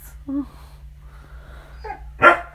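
A dog barks a few times at irregular intervals, starting with short yelping barks and ending in one loud, sharp bark, over a steady low hum.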